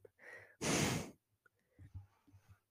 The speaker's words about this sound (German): wenn er wirklich gar nicht lustig ist, dann gibt es einfach nur dieses, dieses ganz dieses stark aus der Nase ausatmen, dieses. Ich weiß nicht, ob man das jetzt gut gehört hat, aber wenn man halt einfach so lacht und dann so.